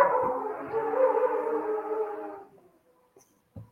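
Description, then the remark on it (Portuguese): Outside, a dog's drawn-out howl blends with the steady drone of a passing motorcycle for a couple of seconds, then fades to near silence, followed by a brief soft knock. “Isso foi um cachorro e uma moto, desculpa, é, não tem edição”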